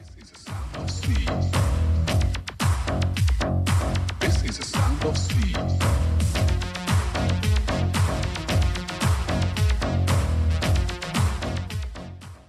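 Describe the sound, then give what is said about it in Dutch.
A 1988 house track by a band plays loud and steady, driven by a thumping four-on-the-floor kick, punchy bass and bright synth stabs, with no voices talking over it. “Hadden die een hele grote hit met het nummer ….”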